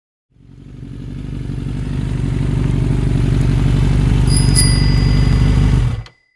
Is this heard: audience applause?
no